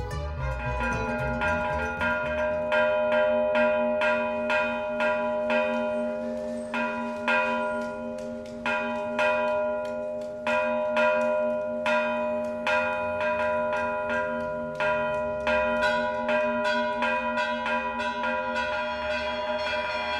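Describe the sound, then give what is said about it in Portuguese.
Church bells ring out in a lively, rhythmic peal, with quick repeated strikes overlapping into a bright, resonant ringing that carries on steadily for the whole stretch, with no voices. “Os repiques e pancadas são sons rítmicos dançantes, que simbolizam eventos alegres e festivos.”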